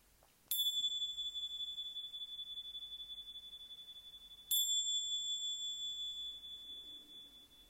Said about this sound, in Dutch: Als je zo het belletje hoort.